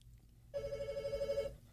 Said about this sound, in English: Is that your phone, Rick? Or no, that that's the studio phone.